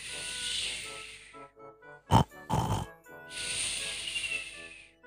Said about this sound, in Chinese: 蹦蹦畅快地打着呼噜，跳跳给逗得咯咯笑。每次他听蹦蹦打呼噜，总是觉得很滑稽。